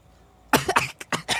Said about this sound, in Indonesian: ini keripik bikin batuk bangke emang ini ngomong-ngomong keripik punya dendam apa sih ya eh, pedas aja keripiknya